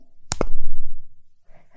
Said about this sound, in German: ich hoffe, man hat es gehört. Ich mag das ja, wenn man die Schokolade so knackt und es ist noch so knackig und, und, und, und schön